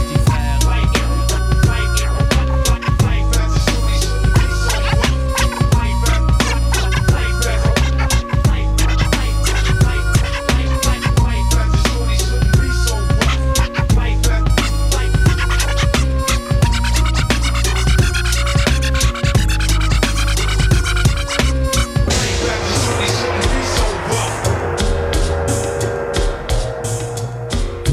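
A loud, full hip-hop track plays steadily throughout, with a punchy repeating beat, deep bass and bursts of turntable scratching layered over the loop, thinning slightly near the end.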